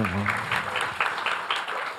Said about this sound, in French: Oui, vous pouvez applaudir les deux.